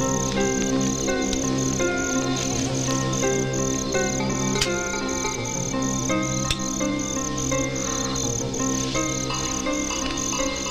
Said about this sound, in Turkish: suyun olmadığı sıcak, kurak bir günde cırcır böceklerinin sesi yükselir her zaman. Sıcak ve kurakla temas eden her bozkırdan geçmiş insanın ses ve hissiyatında yer alır cırcır böcekleri.